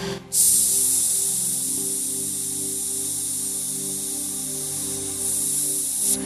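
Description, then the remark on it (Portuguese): A steady, loud hiss of air escaping from a punctured car tire, continuous and unbroken for about six seconds, with a faint low hum underneath and no talking. The car had just been parked near a storm drain on a rainy day. “E não parava o som. Tava perto de um bueiro, achei que era água do bueiro passando.”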